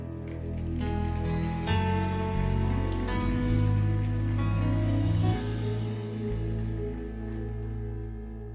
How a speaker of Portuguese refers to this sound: Vamos aplaudir Jesus.